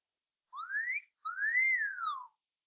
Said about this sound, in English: Did you hear that? I did. It was a wolf whistle. It was a wolf whistle.